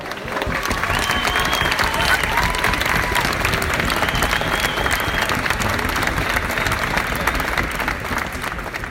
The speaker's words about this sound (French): À noter la victoire chez les hommes de Erik Sebastian Krochvist, le Norvégien qui termine la course en 18h49. Euh, Applaudissements.